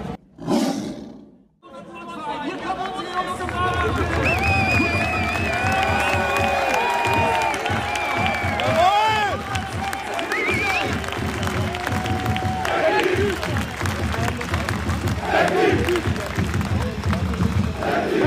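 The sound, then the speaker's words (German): A big football crowd roars continuously at the entrance to the Westkurve of the stadium, a dense wall of chanting and cheering with rising and falling voices and whistles, loud and sustained after a brief quiet start. “wir sind jetzt unmittelbar vor der Eingang zur Westkurve”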